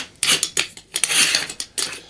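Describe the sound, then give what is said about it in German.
A metal espresso pot that always jammed being twisted open, heard as a series of short, bright metallic scrapes and squeaks in uneven bursts, with no voices. “das ist auch eine Erinnerung, dass die Espresso-Kanne immer verklemmt war.”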